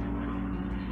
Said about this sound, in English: Sorry for the plane.